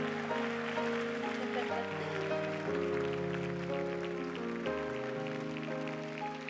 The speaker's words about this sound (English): Give Jesus Christ the greatest hand clap. Jesus Christ, give him the greatest hand clap of the day. Come on, somebody honor him.